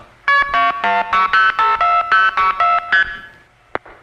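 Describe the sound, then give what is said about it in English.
A telephone exchange in Youngstown, Ohio switches the call onto a trunk line to Canton: a quick run of about eleven loud, clipped dual-pitch signaling beeps in steady rhythm, then a brief pause and a sharp click. “That's the sound of Youngstown, Ohio, dumping us into a trunk to Canton.”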